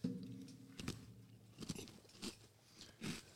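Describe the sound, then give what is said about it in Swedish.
Crunching of crispy biscuits being bitten and chewed, several sharp crackly bursts spaced irregularly over a few seconds, with no talking. “De var riktigt knapriga. De var goda.”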